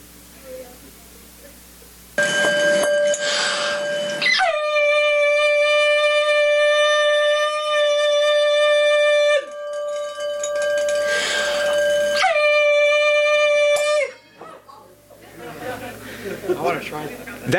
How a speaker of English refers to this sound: that's an example of resonance. Basically, what he did is he pinged, he pinged the glass, so he found the, the tune that that glass was tuned to.